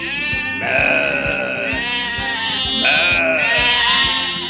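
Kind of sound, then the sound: animal, sheep bleating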